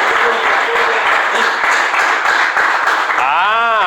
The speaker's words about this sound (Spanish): Déselo al Señor ese aplauso, por favor, si se lo va a dar.